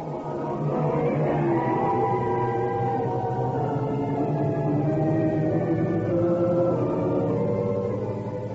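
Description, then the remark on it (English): A long, drawn-out door creak introducing the spine-chiller programme The Creaking Door, groaning and wavering in pitch for about eight seconds, loud and continuous, with no voices over it. “The creaking door.”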